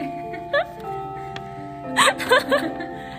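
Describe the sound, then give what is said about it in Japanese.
A university bell chime rings out in the background with sustained, lingering tones, while people laugh over it in a few short bursts. “今大学に行ってチャイムの音が入ってます すいませんまああってもいいかもしれん”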